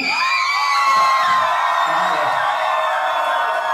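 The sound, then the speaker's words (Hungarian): A large concert crowd in Szombathely roars after the city's name is announced, shouting, whooping and cheering continuously at a loud, steady level, with many overlapping voices filling the whole stretch. “És amikor kimondtam, akkor majd ha kiabáltok, akkor holnap feltöltjük a hajkásnak a körtisztes Facebook oldalra, és az egész kurva ország átadja, hogy milyen puli van Kúszer Az egész ország láthatja, hogy Szombathelyen mekkora buli”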